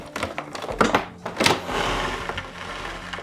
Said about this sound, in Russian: Быстро добираюсь до двери – на ощупь обнаруживаю объект, похожий на ручку двери, поворачиваю. Со скрипом открывается классическая дверь.